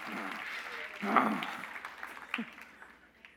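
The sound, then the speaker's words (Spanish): An audience claps together for the men in a dense, steady wash of applause, with a brief voice rising out of it early on, then the clapping gradually thins and fades toward the end. “Un aplauso para los hombres.”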